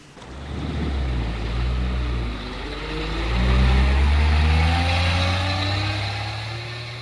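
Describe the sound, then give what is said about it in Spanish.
A heavy bus engine rumbles, its deep hum climbing in pitch as it accelerates midway, then holding a steady drone, on a bus ride to Guadalajara. No one speaks. “Me subí en el autobús que me llevó a Guadalajara.”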